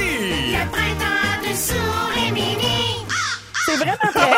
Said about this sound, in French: C'est quoi la corneille à la fin? C'est beau.